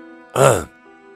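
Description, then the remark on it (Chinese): One short, throaty cough from a man, a voiced burst lasting about a third of a second, stands out clearly above a quiet, steady electrical hum. “他咳嗽了一声”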